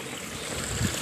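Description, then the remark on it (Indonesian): Flowing water rushes steadily for the whole moment, a dense continuous wash mixed with the breathy hiss of blowing wind, even in loudness with no voices. “ada suara-suara airnya guys hmm.”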